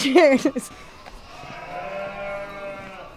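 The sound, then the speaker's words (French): Ewes and lambs bleat, with a loud, wavering call at the start followed by fainter, drawn-out bleats from the flock. “Quand j'allais chercher mes enfants à la maternelle, qui sortent, vous, et en criant parce qu'on est tous là pour les récupérer, bah, pour les brebis, c'est un peu pareil.”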